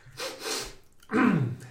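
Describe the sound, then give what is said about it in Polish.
A drawn-in, hissy nasal sniff, followed after a short pause by a louder, throatier voiced snort-like noise. No speech. “Pociągam wyra wyraźnie i głośno nosem.”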